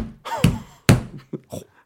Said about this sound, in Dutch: Voor de mensen thuis, hij sloeg, drie keer op zijn tafel.